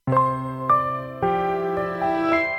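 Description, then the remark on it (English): The startup sound of the Verbum Library software launching: a short, bright melodic jingle of five or six overlapping chime-like notes that ring and sustain, played clearly on its own with no voices. “That's the sound of the Verbum Library launching up.”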